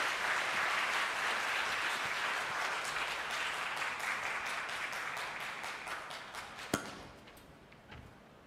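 An audience applauds steadily in a dense, even wash of clapping that holds for about seven seconds, then thins out and fades away, with one sharp crack standing out near the end.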